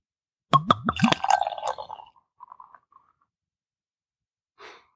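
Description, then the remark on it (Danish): Reddish Irish beer is poured into a glass on St. Patrick's Day: a few quick glugs from the bottle, then a foamy fizzing rush that trails off into scattered bubbling, followed by a soft breathy sound. Fairly loud, no talking. “Jeg kunne da i hvert fald høre noget her, så nu prøver jeg lige at se, hvad der sker, når jeg hælder.”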